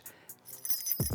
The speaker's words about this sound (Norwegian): Vet dere hva dette er lyden av? Ja, jeg ser at det er nøkler, ja. Ja, Det er jo en lyd som jeg egentlig ikke er så glad i